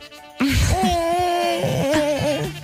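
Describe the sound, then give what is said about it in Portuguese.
A voice imitates a creaking door with one long, wavering, strained tone that bends up and down in pitch for about two seconds, fairly loud, with no other speech. “E agora faz uma porta a ranger.”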